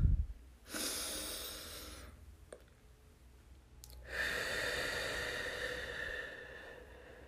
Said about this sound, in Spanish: Tomamos una última respiración.